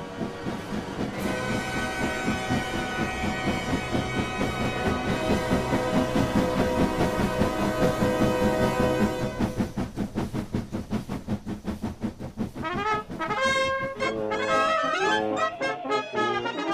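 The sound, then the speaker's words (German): A train bound for Switzerland rumbles steadily along the tracks with a regular clattering rhythm and a sustained tonal hum, fairly loud, with no one speaking. “Am Morgen des 10. Dezember 1865 bestieg er den Zug in Richtung Schweiz.”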